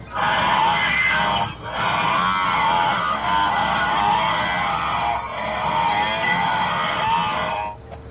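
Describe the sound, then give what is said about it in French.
A large herd of wildebeest lowing all at once, a dense, loud chorus of overlapping nasal grunts and moans that carries on steadily for several seconds with only a brief lull. “Écoute un troupeau de gnous où tous les individus meublent en même temps.”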